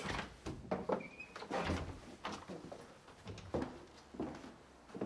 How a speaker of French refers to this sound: Encore une porte.